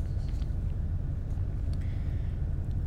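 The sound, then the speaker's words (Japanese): A steady low rumble inside a car riding to an errand, a muffled hum with faint higher hiss and a few soft clicks over about three seconds and no voices. “って言ってもですね、あのー、私今車の中なんで、あの、ネタがないんですよね。”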